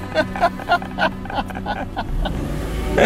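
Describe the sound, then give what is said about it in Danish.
A 90-year-old vintage car's engine chugs and sputters in a steady rhythm of loud pulses over a low rumble, then settles into a rougher continuous drone as it drives along. “Du er ikke bange for sådan en 90-årig kørebil, vel?”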